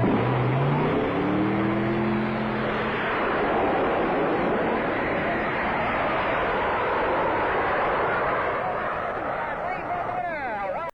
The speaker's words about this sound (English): World's fastest go kart here in lane one. Now, back out of the way just in case this thing big nights like it did one afternoon out here. And ready to go now on the sideline, ready to blast off.